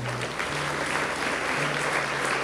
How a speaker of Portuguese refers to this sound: Vamos aplaudir o nosso Deus, vamos.